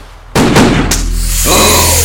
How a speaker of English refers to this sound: you slammed the car door on him.